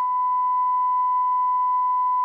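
A steady, continuous beep tone at a single pitch, held loud and unbroken for over two seconds, like a censor bleep, with no voices over it.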